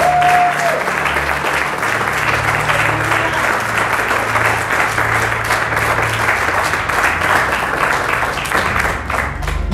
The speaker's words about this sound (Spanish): ¿Alguien puede aplaudir fuerte en esta mañana y decir gracias a Dios?